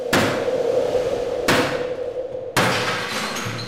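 Police force an apartment door open early in the morning, around 6 a.m.: three loud, heavy blows at uneven intervals, each leaving a sustained metallic ring that hangs between strikes. No voices are heard.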